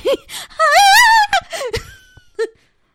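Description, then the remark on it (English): A girl screams in a film scene, a shrill, wavering cry lasting about a second, framed by short breathy gasps and a brief falling whimper before it fades out. “oh my gosh, that girl screamed though.”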